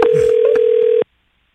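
A single steady telephone ring tone from a phone call being placed hums loudly for about a second, then cuts off abruptly into silence, with no voices present.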